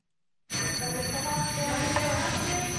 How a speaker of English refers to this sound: With the ringing of the bell, Giorgia Meloni begins her first day at work as Italy's new prime minister with a handover ceremony.